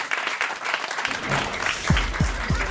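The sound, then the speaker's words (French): A studio audience in a dense, steady patter of clapping as people settle into their seats in the studio before the show Foule Sentimentale, with a few low thumps near the end. No one speaks. “J'entends les gens qui s'installent présentément dans le studio.”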